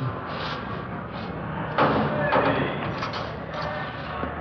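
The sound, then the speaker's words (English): A heavy door at the main jail slams shut with a sharp metallic bang, then a second clunk as it locks, over a steady murmur of background noise and faint voices. “They want to lock that door.”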